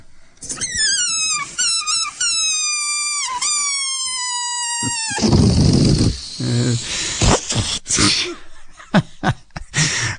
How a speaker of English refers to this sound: I can't stop laughing at that one. That's one of my favorite sounds that I ever recorded. Guess what? You know what that was. It was a balloon deflating and flying around the room.